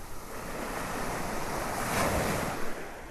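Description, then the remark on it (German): Ocean waves wash steadily onto a beach, a broad continuous roar of surf with one swell building and breaking near the middle, plus light wind noise on the microphone. “Ah, Meeresrauschen. Eine Welle nach der anderen.”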